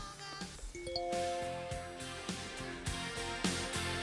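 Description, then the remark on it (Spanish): A bright, chiming electronic jingle like a messaging notification tone, with sustained ringing notes over a steady rhythmic beat, loud with no talking; the sound used for contacts through WhatsApp. “Ese es el sonido de los contactos con nuestro WhatsApp”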